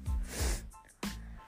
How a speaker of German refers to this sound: Übrigens, sorry für die Hintergrundgeräusche. Ich habe nur ein bisschen Schnupfen.